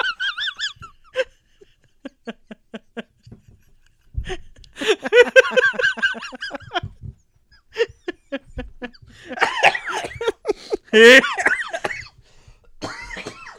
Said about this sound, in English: oh man. I having a little bit of sickness because then I just start coughing.